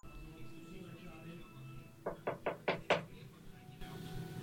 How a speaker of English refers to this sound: Greg and I are friends, and he knocks on my door.